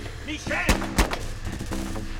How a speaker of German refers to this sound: Und dann hat er hinter mir hergeschossen. Ich habe für einen Moment geglaubt, jetzt ist alles aus.